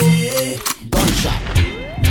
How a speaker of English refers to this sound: anyone in my path will die today by my AK. Gunshot, AK. Gunshot, AK. Gunshot, AK.